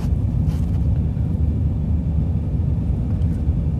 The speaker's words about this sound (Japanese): まああの片田橋っていうところに来てますけど人の行き来もそうでもないし車がなんせ信号で止まってないですねずっとこれ一個もこう車を止めてないというかまあゆっくりでも動いてはいるんですよやっぱり